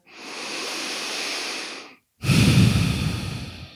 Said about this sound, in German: Das heißt, schließ jetzt nochmal die Augen nimm ein paar tiefere Atemzüge ein und aus.